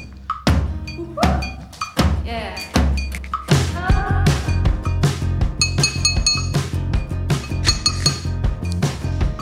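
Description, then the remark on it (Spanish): A fork taps a glass beer bottle in quick, rhythmic bursts, each bright clink ringing briefly. The clinks keep a steady pattern over a low, droning musical backing, with no one speaking. “y, bueno, eh, metal sobre vidrio. En este caso es un tenedor sobre una botella de, birra.”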